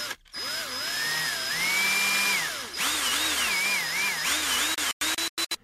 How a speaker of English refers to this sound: From what I can hear in the recording, she used power tools to take apart my recorder and check for bugs.